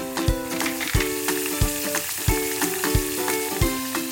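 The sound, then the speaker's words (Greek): Tomato sauce of chopped tomatoes, tomato concassé, boiled beans, salt and pepper sizzles steadily in a pan with a dense, crackling hiss, while a spoon stirs it, knocking against the pan about five times at an uneven pace. No one speaks. “θα σβήσετε με το κόκκινο κρασί και μόλις εξατμιστεί θα προσθέσετε τις ψιλοκομμένες ντομάτες μαζί με την ντομάτα κονκασέ, τα φασόλια χάντρες τα οποία ήδη έχουμε βράσει, αλάτι πιπεράκι και θα ανακατέψουμε καλά.”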